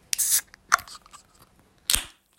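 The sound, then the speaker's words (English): A beer can pops open with a sharp hiss of foam spraying out, followed by two short, crisp clicks, the last one fairly loud. No voices are heard. “That's a nice clean open right there.”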